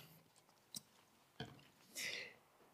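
Quiet, close-up mouth sounds of sipping and swallowing water: a couple of soft wet clicks, a gulp, then a brief airy exhale, with no talking.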